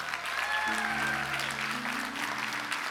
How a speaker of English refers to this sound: welcome all of our local campuses all across Miami Dade West Kendall, Doral, Homestead, Redland, Coral Gables, and downtown. And for those of you who are watching us online, Christ Fellowship, can we give it up to them as loud as you can? Come on.